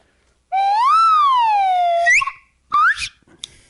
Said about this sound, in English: Whoa. Where was the slide whistle? It's been gone for like, I don't know, six months?